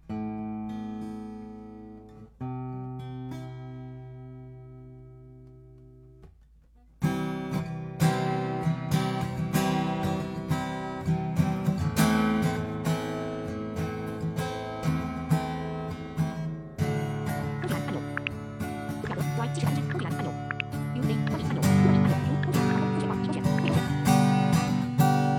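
A dry acoustic guitar plays alone, recorded with a spaced AB pair of two parallel, forward-facing microphones, opening with a few sustained chords before breaking into louder, busier strumming and picking with a wide stereo spread and no reverb or added effects.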